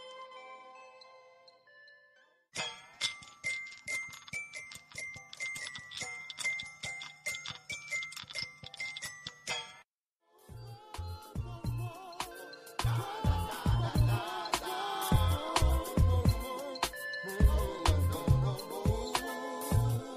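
A song plays with no talking: a soft tinkling intro, then a steady ticking, plucked rhythm, and finally a fuller arrangement kicks in with a heavy, punchy beat and bass.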